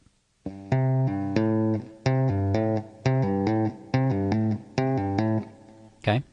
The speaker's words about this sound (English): Then you're going to have your first finger on the 3rd fret on the same string, the low E, and you're going to pull off to it. And then you're going to hammer on to the 5th fret.